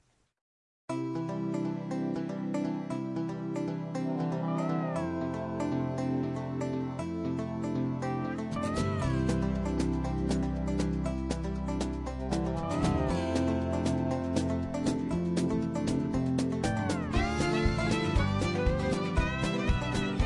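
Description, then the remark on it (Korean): A Korean pop song, a listener's request, plays loud on the radio after a second of silence, its full, steady arrangement thickening as a deep bass line comes in partway through. No one talks over it. “자 우리 6863님께서 신청하신 어, 신청곡을 안 틀어드릴 수가 없을 것 같은데 어, 음악을 한 곡 듣고 오겠습니다.”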